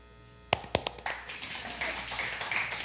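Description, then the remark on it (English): Several sharp, separate claps ring out, then quickly blend into a steady wash of audience applause that holds at a moderate level to the end, with no talking. “You do have to clap after every single section.”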